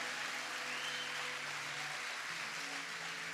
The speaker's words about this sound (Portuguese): Dá um salve de palmas para Jesus. Glória a Deus, aleluia.